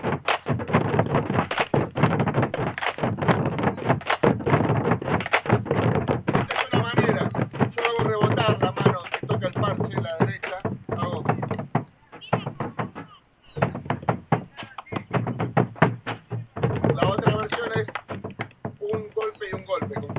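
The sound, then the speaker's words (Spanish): A bombo drum is struck horizontally, its loud, dull thumps falling in a rapid, steady rhythm, with short breaks and someone speaking at moments between the beats. “Y el golpe, volvemos al inicio de todo, al tocarlo así horizontal, no como lo tocás vos, tenés como la, las manos tipo moto, la, moto, entonces tenés control del palo acá y acá controlás el rebote.”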